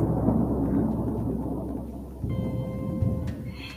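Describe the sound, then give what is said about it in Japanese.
A low, continuous rumble of thunder rolls on steadily, with a faint patter like rain mixed in and no voices. “ちょっと雷が鳴ってるんですけどね、気にしないでいきましょうか。”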